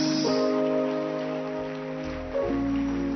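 An audience at a Sunday church service claps hands for Jesus in a dense, continuous patter, heard over sustained keyboard chords that shift partway through. There is no talking.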